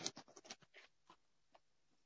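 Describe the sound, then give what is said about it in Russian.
Quick, soft squeaky strokes of a felt-tip marker on paper as the writer rewrites something, a burst of several scribbles in the first second, then a few isolated strokes trailing off. Quiet, with no talking. “я привыкла к доске, и мне э, фломастером писать, и я не привыкла на бумаге писать фломастером.”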